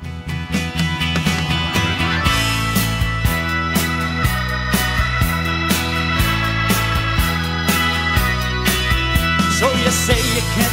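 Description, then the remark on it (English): A song plays at full volume, with a steady driving beat, deep sustained bass notes that shift in blocks, and bright layered instruments on top. No voices are heard. “We'll you know do a little, little time travel back, and we're going to listen to this particular song.”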